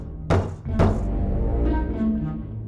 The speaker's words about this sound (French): puis cogna à son tour à la porte.